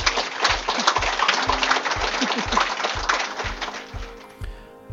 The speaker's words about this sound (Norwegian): Takk for at dere kom i kveld, og gi en varm applaus til disse flotte damene.